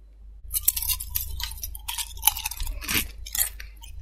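Someone in an office chews crunchy biscuits, a steady series of dry, crackling crunches with sharp bright snaps, moderately loud and continuous, with no talking.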